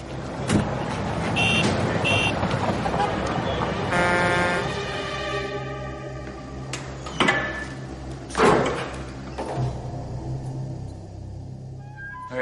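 Busy street traffic rumbles steadily with passing vehicles, while a sustained car horn blares for a couple of seconds midway, followed by sharp thumps and clanks.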